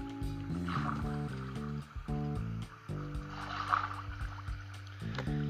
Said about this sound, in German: ist da eine Unterwasserhöhle oder warum kommt da Wasser rein?